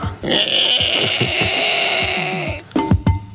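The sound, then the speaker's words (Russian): A voice imitates a door creaking open, a strained, squealing rasp held for about two seconds with a rough pulsing undertone, followed by a few short voiced bursts. “Со скрипом открывается. Изобрази скрип.”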